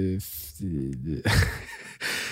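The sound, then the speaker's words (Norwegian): A drawn-out yawn: a voiced, pitch-bending groan that slides upward and back down, followed by a long breathy exhale, with no speech. “Jeg er helt enig med deg, men bare gjespe.”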